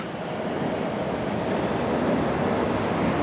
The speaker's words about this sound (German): So klingen hier übrigens die Züge. Ihr könnt hier wunderbar anreisen mit Zügen aus Richtung Koblenz, aus Richtung Trier. Die halten hier Bahnhof Edeger Eller.